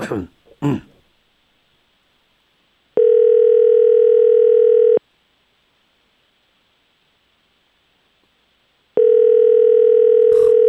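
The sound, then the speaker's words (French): A telephone busy signal heard while calling someone, sounding as two long, steady electronic tones separated by a pause of silence, clear, after a brief cough or throat clearing at the start. “On appelle des gens occupés, c'est chiant.”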